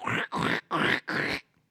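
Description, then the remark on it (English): A person does a Donald Duck impersonation, making four quick, raspy squawking bursts in an even rhythm, loud, followed by a moment of quiet. “ask him to do his Donald Duck impersonation.”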